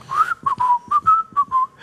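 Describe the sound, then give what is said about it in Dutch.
A short whistled melody of about seven clear, piping notes in quick succession, fairly loud, with no talking over it. “Dus het gaat om zijn fluit.”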